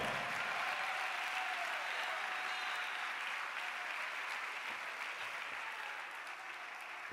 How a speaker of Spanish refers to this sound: Denle el mejor aplauso al Señor.